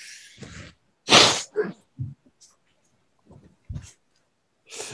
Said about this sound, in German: Du, ich muss mir gerade mal die Nase putzen.